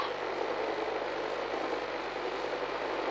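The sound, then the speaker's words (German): A helicopter taking off into the night, heard as a steady, dense engine roar with a low mechanical hum underneath, holding an even loudness throughout with no voices. “Jetzt geht der Hubschrauber hoch.”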